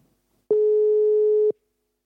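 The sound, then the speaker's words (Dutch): A single loud telephone ringing tone on an unanswered call: one steady, buzzy pitch held for about a second, then cut off, with silence before and after and no voices. “Zouden we ons debuut hebben dat iemand niet opneemt?”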